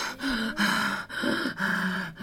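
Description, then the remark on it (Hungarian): A voice imitates heavy panting from climbing stairs: four or five loud, rasping breaths in a steady in-and-out rhythm, breathy, with no talking. “hogy igazából most nehezemre esik fölmenni a lépcsőn, és így, így lihegek föl, mint egy ilyen nem is tudom.”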